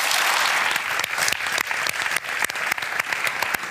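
An audience applauds warmly, a dense, steady wash of many hands clapping with sharp individual claps popping through, sustained at an even loudness with no one speaking.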